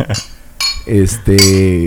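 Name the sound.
glasses clinking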